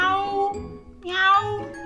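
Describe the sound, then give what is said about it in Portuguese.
A kitten meows twice, two clear, drawn-out high-pitched calls, the second brighter and rising, with no talking around them. “O gatinho.”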